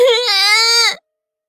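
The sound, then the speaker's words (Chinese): A little girl, clutching a woman tightly with both small hands, lets out one shrill, loud crying wail lasting about a second, its high pitch dipping slightly and then holding steady before breaking off abruptly into silence. “小月儿的哭声尖利了几分，两只小手紧紧抓着妇人。”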